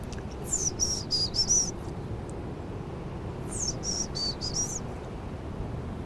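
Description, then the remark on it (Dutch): Someone whistles an imitation of a treecreeper call, trying to draw the bird over: two short runs of high, thin, rapid notes a few seconds apart, over a steady outdoor hiss. “Even die boomkruip proberen hierheen te fluiten.”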